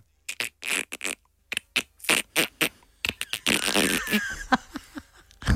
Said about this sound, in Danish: det er en delfin. Delfin er det rigtige svar.